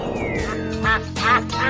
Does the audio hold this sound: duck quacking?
yes